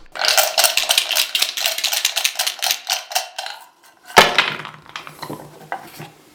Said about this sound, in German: Also gut, fangen wir an. Würfelt die Initiative aus.